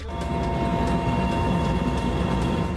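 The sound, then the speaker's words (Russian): A helicopter carrying the Russian president flies from the Kherson region to the Luhansk People's Republic, heard as a steady, loud engine drone with a heavy low rumble and faint periodic beats from the rotor. There is no talking. “Перелет на вертолете и снова машины по возвращенным русским землям в штаб Национальной гвардии «Восток».”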